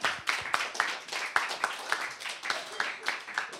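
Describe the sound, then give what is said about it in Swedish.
A crowd, including visitors from Örebro, applauds steadily for Örebro for a few seconds, a dense patter of many hands clapping at once, with a few sharper claps standing out and some voices mixed in. “Ja, tänk, Få en applåd för Örebro.”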